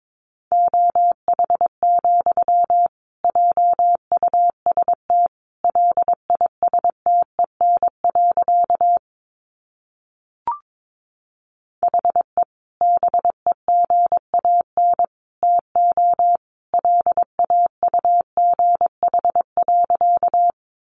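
Morse code sent at 22 words per minute, made of sentences from the top 500 words, a single steady mid-pitched tone keyed on and off in quick dots and dashes, running in word-like groups with one longer pause partway through. No voices.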